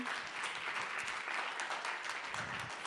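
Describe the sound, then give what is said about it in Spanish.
The audience at the México Y2K festival applauds itself, a steady, dense, continuous patter of many hands at an even loudness with no voices standing out above it. “Aplauso también para ustedes, para el público presente.”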